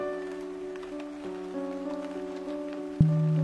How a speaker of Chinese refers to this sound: 下雨了，我打开窗帘。平静的听着雨声